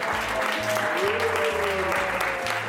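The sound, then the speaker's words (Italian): On the radio show Radio Cattivi, a crowd applauds steadily for the whole moment to welcome guests introduced as Angelina Jolie and Ursula from The Little Mermaid, a dense wash of clapping at an even level, with a low pulsing bass line and a faint tone running underneath. “Un applauso.”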